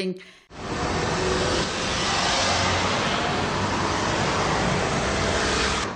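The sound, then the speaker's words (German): After a brief pause, a dense, continuous roar of road traffic far below on the Theodor Heuss road sets in and holds steady, a broad wash of vehicles with no single car standing out, heard from above at a construction fence by a demolition edge. “direkt an der Abbruchkante und in den schwindelnden Abgrund blickst, und tief unter dir braust der Verkehr auf dem theodor heuss”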